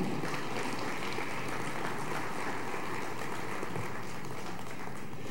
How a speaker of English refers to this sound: Oh, yeah, no, no, no. You need to clap better for that. Your commission does not change.